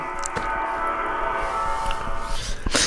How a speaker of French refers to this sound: Ah mon gong